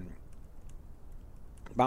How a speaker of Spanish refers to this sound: Lo que, lo que los traspasos más caros en España, perdón, es que estoy tecleando. Em, a ver si puedo, si puedo encontrar, porque tengo una, lista de los traspasos, más, los traspasos más caros en general, europeos.